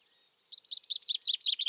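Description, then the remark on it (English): A chaffinch singing: a fast series of about seven bright, high, descending chirps in a steady rhythm, fairly loud and alone, with no talking. “We've heard a chaffinch.”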